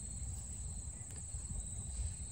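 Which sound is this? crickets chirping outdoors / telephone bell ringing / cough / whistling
crickets chirping outdoors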